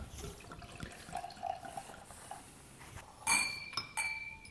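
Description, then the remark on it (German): Wine, a 2014 Catena Zapata Adriana Vineyard White Stones Chardonnay, trickles softly into glasses, followed by two bright glass clinks about a second apart, with no talking. “So, die Gläser sind voll. Da kommen die schwatten Gläser.”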